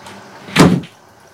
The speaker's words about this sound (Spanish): entra en el aseo y Oslo le cierra la puerta